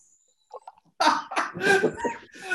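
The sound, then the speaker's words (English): A man nearly chokes on a drink, sputtering and spitting it back into his glass, followed by a burst of harsh, loud coughing. “spitting his drink back into his glass because he's nearly choked on it and I'm not cutting that out,”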